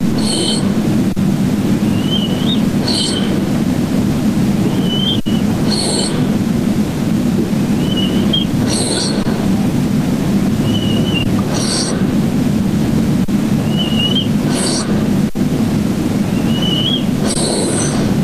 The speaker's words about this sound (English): all right, the first snore I, I I observed was the whistle. It almost sounds like a whistle to me. Listen carefully.